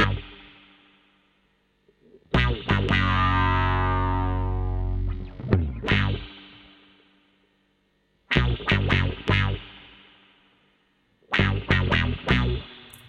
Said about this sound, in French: Ensuite, euh, une guitare euh, avec possible que ce soit une basse 6. Et la fuzz, un peu plus sèche, avec un petit peu de reverb.